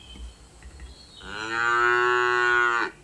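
A single long cow moo, loud, rising out of a quiet background and holding steady for about a second and a half before cutting off abruptly.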